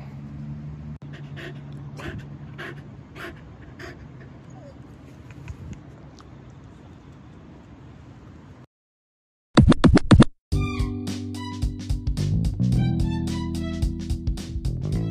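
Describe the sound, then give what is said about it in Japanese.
A Hokkaido dog crunches and chews a snack during a morning walk on September 27, in a run of irregular clicky bites, with steady panting underneath. After a brief gap, louder chewing and rustling resume, with a faint voice. “えー、9月27日朝の、えー、朝のお散歩中のおやつですね。こんな風に食べてますよっていうことでした。”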